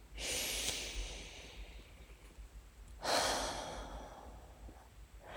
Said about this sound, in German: stellt mal beide Füße auf den Boden, legt die Hände auf den Oberschenkeln ab, schließt die Augen und atmet tief in den unteren Bauch ein und aus.